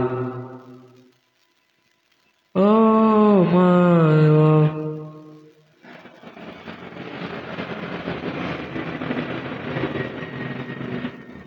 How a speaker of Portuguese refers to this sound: Porcaria, avião do caralho.